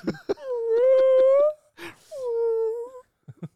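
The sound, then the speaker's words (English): Human voices imitate whale calls with two long, wavering moans, the second following after a short breathy gasp, plus a few brief vocal clicks at the start and end. Fairly loud. “no, we're making whale noises.”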